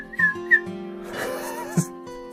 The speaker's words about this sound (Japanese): 口笛バリ下手くそですね。